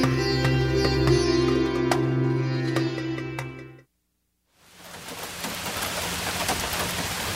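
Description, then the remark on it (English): Rain patters on a tin roof, with sharp metallic pings ringing over a steady hum. After a brief silence, a denser, hissing downpour takes over, fairly loud, with no voices. “When I was a boy, the sound of rain falling on a tin roof was my time to dream.”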